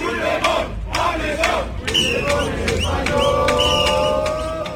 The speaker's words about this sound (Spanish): La concentración se desarrollaba sin incidentes. Los eh, concentrados gritaban consignas contra Pedro Sánchez, Carles Puigdemont o Felipe VI. Sánchez, golpista, estás en nuestra lista.